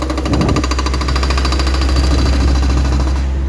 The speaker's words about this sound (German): Da war gerade so ein Bohrer.